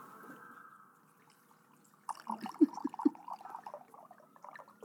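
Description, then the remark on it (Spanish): A drink pours into a very large stemmed glass, starting after a quiet moment with a low steady hum, then a burst of gurgling splashes and uneven glugs that carry on to the end. “La copa más grande del mundo.”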